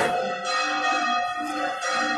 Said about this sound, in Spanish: Estamos disfrutando también de, del sonido de, de las campanas.